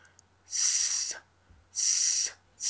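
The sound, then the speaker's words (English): A person pushes air from the stomach past the tongue, without a call in the mouth, in a snake-like hiss: three sustained, fairly loud bursts separated by short pauses, with no talking. “and it sounds like I'm saying like hissing like a snake.”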